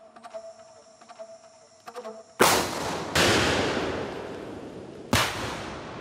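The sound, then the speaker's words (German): Three loud, sharp explosions from 4 kilos of dynamite placed by soldiers at several points on a powerful truck engine found in a hole in the rainforest, two close together and a third a couple of seconds later, each trailing off in a long rumbling decay after a quiet stretch of faint humming tones. “Sofort bringen sie 4 Kilo Dynamit an verschiedenen Stellen an.”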